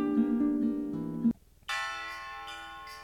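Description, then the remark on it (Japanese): Halloween-style music played on a broadcast: bell-like, chiming music with sustained harmonic tones; a low, dense passage cuts off into a brief near-silence, then brighter, higher bell tones ring out. No one speaks. “ハロウィンらしい音楽スタート”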